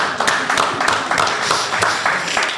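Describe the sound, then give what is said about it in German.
Applause from a small group for Kranz, a producer sitting within view; a steady patter of overlapping hand claps with sharp, bright transients, sustained at moderate loudness for a couple of seconds without any talking. “Und ja, ja Applaus, Applaus für äh, Kranz auf jeden Fall.”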